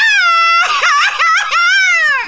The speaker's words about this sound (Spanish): ¡Viva México! Él no está gritando un grito mexicano, él está llorando. Ah, ¿para qué lloras?